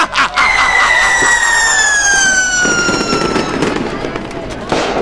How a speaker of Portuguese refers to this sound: Que tá bombando! e vai bombar ainda mais com nossos disparos de canhões!